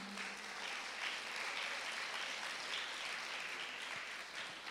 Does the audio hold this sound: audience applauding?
yes